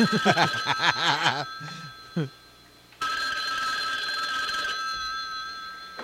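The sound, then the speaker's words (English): Brief laughter opens, then an old telephone bell rings loudly and steadily, its rapid metallic trill continuing for several seconds after a short pause. “Look at that old phone.”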